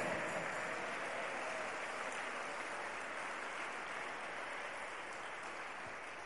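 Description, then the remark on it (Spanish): An audience at a church service claps for God together in sustained, dense applause that holds steady for several seconds, a crackling wash of many hands with no voices standing out. “Démosle un fuerte aplauso al que vive.”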